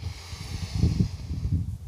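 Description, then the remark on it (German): A deep, slow, conscious breath in, taken while standing still outdoors in nature, heard as a steady airy hiss lasting about two seconds, with a soft low rumble underneath and no talking. “Jetzt hier ein bewusster Atemzug am Ende. Hier mal kurz stehen bleiben, Natur beobachten, einatmen,”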